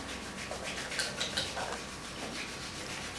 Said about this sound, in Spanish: Y vuelves a parar al centro y comienzas a frotar vigorosamente las palmas de tus manos y las plantas de tus pies también de manera vigorosa. Descansa pies, sigue frotando palmas